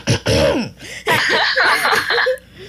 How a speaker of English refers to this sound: clear my throat for this one.